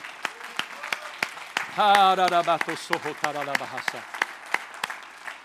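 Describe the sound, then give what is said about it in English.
An audience claps hands in a steady, scattered rhythm throughout, with a loud voice calling out over the clapping in two bursts partway through. “All oh, clap your hands a little step.”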